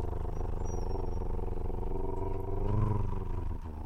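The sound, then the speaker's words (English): A person imitates a drum roll with a steady, rolling vocal trill, a low buzzing rattle held for about four seconds that swells slightly near the end. No words are spoken. “Is that a helicopter or a drum roll?”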